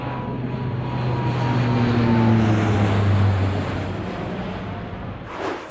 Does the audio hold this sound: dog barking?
no